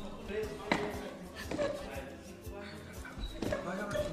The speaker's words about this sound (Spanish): cae el celular y corta la transmisión.